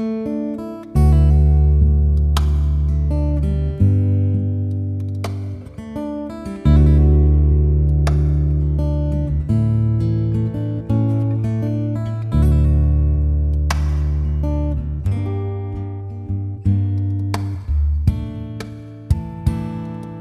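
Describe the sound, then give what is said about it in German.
Loud, steady intro theme music with deep sustained bass chords shifting every few seconds, bright percussive accents and a layered electronic sound, playing alone without any voices. “Kein Problem, ich erzähle dir das gleich und allen anderen auch, aber nur, wenn du vorher die Musik abspielst.”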